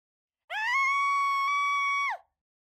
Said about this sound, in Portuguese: Antes de me responder, ouvimos gritos